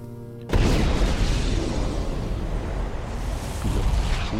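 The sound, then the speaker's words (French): A gunpowder barrel beside a cannon explodes after a spark falls into it, a sudden loud blast after a brief low hum, followed by several seconds of heavy, roaring rumble and crackling debris that slowly settles but stays loud. “what goddamn d'explosion.”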